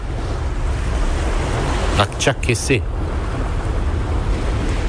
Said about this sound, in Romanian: Se aud valurile.